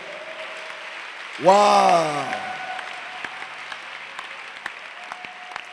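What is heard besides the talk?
audience clapping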